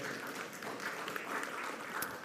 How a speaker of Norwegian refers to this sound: Gjerne klapp for det.